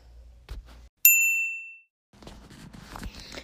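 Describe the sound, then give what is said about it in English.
A single bright, high-pitched voicemail beep on the voice box of Jace Beleren rings out sharply and fades over almost a second, set between stretches of soft muffled rustling and background noise. “Even though I know what you're gonna say, because I'm the most powerful psychic in existence, um, just leave a message after the beep, okay?”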